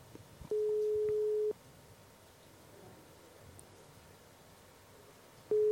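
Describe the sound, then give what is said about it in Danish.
A steady telephone ringing tone as Radio på Toppen calls a lifeguard in Skagen sounds for about a second, followed by a long pause, then the tone starts again at the end, clear and unaccompanied by any voices. “Godt, men jeg synes, vi skal prøve at ringe op til”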